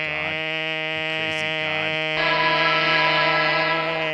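A long, buzzy horn blast holds one steady low pitch for about four seconds, turning louder and harsher partway through. No one speaks over it.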